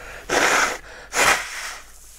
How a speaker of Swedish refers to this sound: Och det här är lite speciellt måste vi säga efter vi har snytt oss.